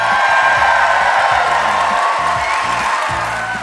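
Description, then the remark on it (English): A large crowd at the Ferst Center in downtown Atlanta, Georgia, cheers and whoops continuously at a live event on April 28th, 2016, a loud, dense wash of voices with high shouts riding on top, holding steady for a few seconds before easing slightly at the end. “We are joined by a huge crowd or as we like to say,”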